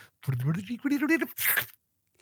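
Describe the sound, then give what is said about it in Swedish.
A voice imitates a tape rewinding: a quick, rising, warbling vocal whir lasting about a second, then a short breathy hiss, fairly loud, before it stops. “Där jag gör ett spola tillbaks-ljud eh, så att alla ja.”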